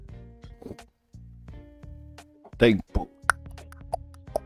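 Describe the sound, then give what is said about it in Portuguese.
Small objects clatter and knock as a small travel chess set, a little kit holding its pieces that is also a wine opener, is handled, a few sharp clicks and plops breaking through while a person talks over them. “É um kitzinho que tem as pecinhas dentro.”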